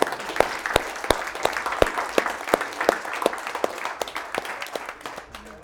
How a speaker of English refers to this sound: Let's give Jack a round of applause, folks.